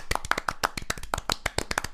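A short burst of applause: a few people clapping rapidly in sharp, irregular slaps for about two seconds, with no talking over it.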